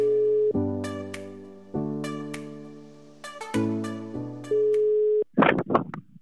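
A telephone ringback tone plays while a call connects: steady, electronic-sounding sustained tones that step between pitches for several seconds, then stop abruptly as a voice briefly answers.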